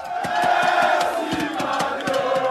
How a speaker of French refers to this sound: acclamé, porté même par la foule.